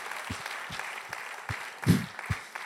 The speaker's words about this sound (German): Ähm, ja, da können wir uns nochmal gegenseitig einen Applaus geben, weil das ist wirklich stark.